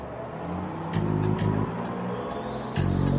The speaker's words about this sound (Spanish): El pastor Weiss se sentó mientras el autobús comenzaba a andar.